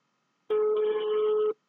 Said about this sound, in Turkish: Teşekkür ediyorum ve kendisini arıyorum. Çalıyor bakalım dıdın dıdın.